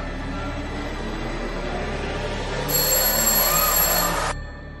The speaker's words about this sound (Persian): ناگهان صدای زنگ خانه بلند شد